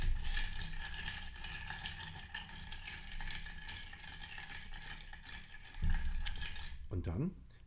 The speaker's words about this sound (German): Das Ganze tut ihr in ein Rührglas mit Eis. Das Ganze wird gerührt, um es schön abzukühlen und ein bisschen mit Wasser zu versetzen. Bitte entschuldigt das Geklapper im Hintergrund, das sind die Eiswürfel.